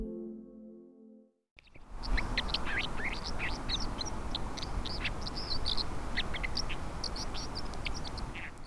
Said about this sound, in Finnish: Tämä taustalla laulava lintu on koskikara, joka seisoo ohuella jäälautalla.